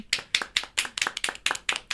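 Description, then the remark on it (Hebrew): Steady, rhythmic clapping welcoming a guest onto a programme: about nine sharp, crisp claps in two seconds at an even pace, moderately loud and with no voices over it. “בבקשה, מחיאות כפיים.”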